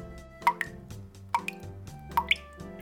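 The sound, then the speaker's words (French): Water drips in a slow, uneven rhythm, each drop landing with a clear, bright plop, a few drops in quick pairs, with a low, quiet hum underneath. “Elle travaille seule dans son petit atelier trop sombre, aux murs qui suintent lorsque l'automne arrive.”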